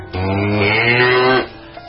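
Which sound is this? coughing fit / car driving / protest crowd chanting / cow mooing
cow mooing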